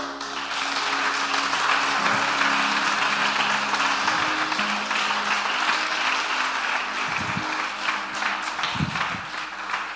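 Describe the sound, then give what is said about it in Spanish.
An audience claps steadily for about ten seconds, a dense, even wash of many hands at a fairly loud, constant level, with some low hum beneath and no talking. “Eso se merecía un fuerte aplauso.”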